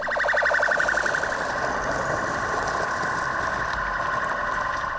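A loud siren at the Volunteer Fire Department of Presidente Getúlio wails steadily throughout, signalling another rescue run. Its tone pulses briefly at the start before settling into a sustained, piercing note over a low rumbling background.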